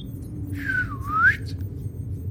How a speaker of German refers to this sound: Gut gepfiffen.